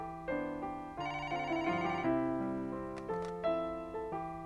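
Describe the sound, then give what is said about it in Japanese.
An internal office telephone at a travel agency's Jimbocho branch rings with a bright electronic melody, its notes stepping steadily up and down, clear for several seconds with no voices; the call is from the sales department's section chief. “誘いの内線電話は営業部の東本庄課長我が神保町支店のエース”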